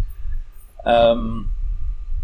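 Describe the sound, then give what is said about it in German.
A coffee machine runs in the background as a steady low rumbling hum that continues throughout, while a person briefly makes a hesitant vocal sound over it. “Sorry Leute, ihr hört jetzt gerade die Kaffeemaschine im Hintergrund, aber ist einfach so.”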